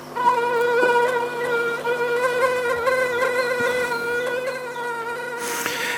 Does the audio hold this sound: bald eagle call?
no